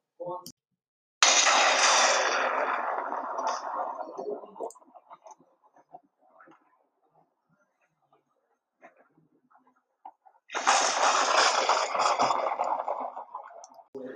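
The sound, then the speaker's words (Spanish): Two loud, deafening thunderclaps during a rainy, stormy night. Each hits suddenly and rolls off in a broad, noisy roar over a few seconds, separated by a quieter stretch with faint rustling. “Apenas habían pasado unos segundos cuando un trueno ensordecedor rompía la noche.”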